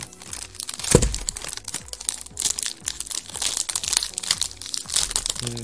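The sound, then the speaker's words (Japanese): Crinkling and rustling of the red plastic wrapper of a package of Moreton Bay Raspberry and Dark Choc biscuits being torn open, with dense crackly bursts and a sharper rip near the start, continuing steadily throughout with no talking. “これも開けてみますね。”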